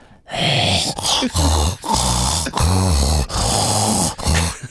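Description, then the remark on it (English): A person imitates a dog's heavy panting breaths, loud, in a steady run of about six breathy, rasping huffs with brief pauses between them. “proceed to come in my room and stand directly in front of my bed, breathing his hot doggy breath right in my face.”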